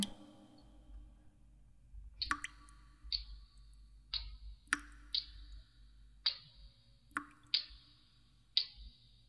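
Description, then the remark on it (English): Roughly eight light taps arrive at an uneven but steady pace, each a crisp click with a brief bright ring, over a low rumbling hum and no voices. “Look, I can hear you tapping.”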